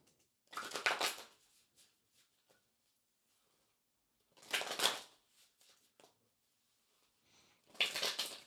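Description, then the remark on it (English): Shuffling of tarot cards in three separate riffling bursts, with soft taps and small clicks of the deck in the pauses between; no one speaks. “All right, so just take a moment and connect to the cards by listening into the sound of them being shuffled.”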